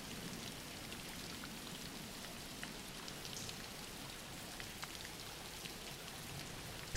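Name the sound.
rain falling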